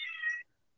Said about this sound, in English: Yeah, that's a cat. yeah, I've I've got a stray cat that's uh, roaming around. She likes to come around when I do podcasts.